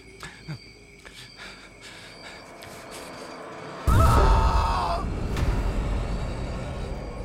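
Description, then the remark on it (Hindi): A man screams suddenly and loudly over a burst of crashing noise after an auto-rickshaw crashes into a stone in front of a cremation ground, the cry lasting about a second before fading into a rumbling, noisy background with faint insect-like chirps earlier on. “चीखने से वो पैसेंजर लड़खड़ाता हुआ बाहर निकल आया”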